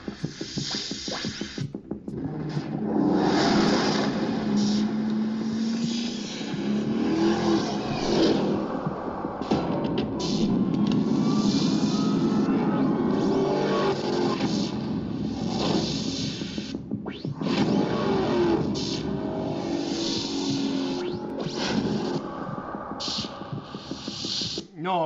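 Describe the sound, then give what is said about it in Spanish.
A loud, close car engine revs repeatedly, its pitch climbing and falling in surges over a steady throbbing rumble that carries on without a break. “Está impresionante lo que hacen siempre con este motor que ya sin duda es uno de los más llamativos para los Estados Unidos”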